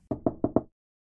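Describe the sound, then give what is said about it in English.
A policeman knocks four quick, firm times on the wooden door of a home in an even rhythm, fairly loud, followed by silence. “As I picked up the phone to dial, one of the policemen was knocking at my door.”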